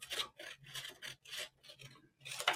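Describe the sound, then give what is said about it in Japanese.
Scissors cut repeatedly through thick paper or cardboard, making about six crunchy, rasping snips in a steady rhythm, with no talking. “ハサミ。ハサミで切っちゃう。カッターとかで切りたいけど。ザクザクザク”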